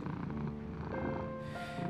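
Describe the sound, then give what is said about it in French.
A tabby cat lying on its young owner's lap purrs, a steady, continuous low rumble that pulses evenly for the whole two seconds, with faint sustained tones in the background. “Je pourrais ronronner ainsi pour l'éternité.”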